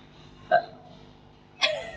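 Two short, abrupt burps about a second apart, each a quick voiced gulp that cuts off fast, against a quiet background with no talking.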